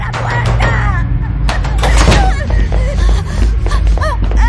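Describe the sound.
Fists pound repeatedly on a door in uneven bursts of heavy thuds, close and loud, while agitated voices cry out over the banging.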